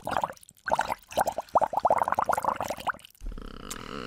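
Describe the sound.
Rapid bubbling as air is blown through a drinking straw into a bowl of water, a dense run of gurgling pops for about three seconds, then it stops and a low hum follows.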